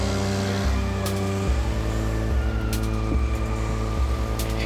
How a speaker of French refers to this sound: Il s'installa derrière le volant de sa voiture et mit le moteur en marche.